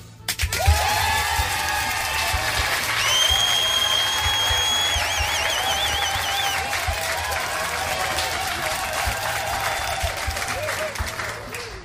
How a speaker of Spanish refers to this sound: Es más, déjame, doy un aplauso. A ver, ¿dónde los aplausos?